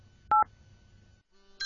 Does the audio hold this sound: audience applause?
no